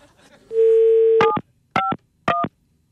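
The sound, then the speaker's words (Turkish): A steady dial tone gives way to three short electronic telephone keypad beeps as a number is keyed in again for a guessing quiz, each a two-pitch DTMF tone with a brief click, evenly spaced and fairly loud, with no voices. “Bir daha tuşlayayım isterseniz bir saniye.”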